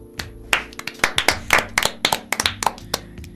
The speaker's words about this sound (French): on peut l'applaudir.